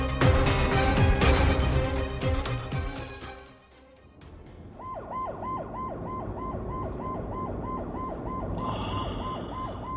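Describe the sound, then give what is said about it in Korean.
A dense, loud burst of music fades out, then an ambulance siren takes over with a steady, rapidly repeating rising-and-falling wail, continuing to the end; the ambulance is carrying a patient and is on its way to a hospital. “여, 기가 어, 어 디예요 구급차 아닙니다. 곧 병원에 도착할 거예요.”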